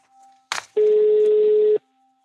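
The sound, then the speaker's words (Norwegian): A short click, then one steady, fairly loud phone ringback tone lasting about a second, the sound of an outgoing call ringing unanswered on the line, with faint line hum before and after. “Hun tar ikke telefonen til å begynne med, men jeg får etter hvert en melding der hun skriver at hun er på en yoga-retreat på Gran Canaria, og at jeg kan ringe tilbake om en liten stund.”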